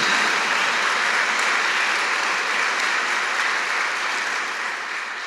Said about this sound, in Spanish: Démosle un fuerte aplauso al Señor Jesús en esta mañana.